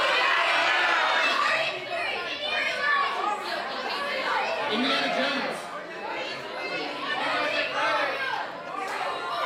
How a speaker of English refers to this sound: On the count of three, what I would like you to do is to yell out the name of the movie that you are most excited for releasing in 2023.